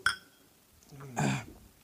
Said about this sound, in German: Leute, auf euch. Lasst uns gemeinsam anstoßen. Und vor allen Dingen auf einen schönen Abend.